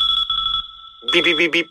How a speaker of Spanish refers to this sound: Si al ir a comprar por internet te suena este bip, bip, bip, en tu cabeza y decides comprar a empresas españolas, damos este anuncio por bueno.